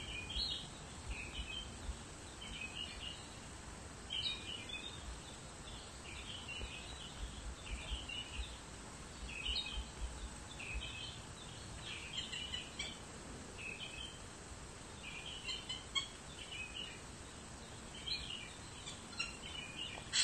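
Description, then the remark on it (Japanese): Small birds chirp repeatedly in short, bright bursts throughout over a steady low outdoor hum, with no voices present. “今日もね、えっ、ー、と、小鳥さんの声が聞こえてるといいんですけども。”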